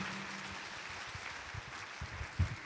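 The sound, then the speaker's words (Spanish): A crowd at a church service claps steadily, a dense, even wash of applause for Jesus Christ after a testimony, holding for the whole stretch, with a few low thumps underneath and no one speaking. “Dele un fuerte aplauso a Jesucristo.”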